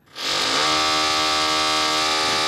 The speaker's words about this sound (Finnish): Ja pahoittelut edelleen tuosta poraamisesta. Se on nyt poikkeuksellisen lähellä ja tulee kovaa tänne studioon.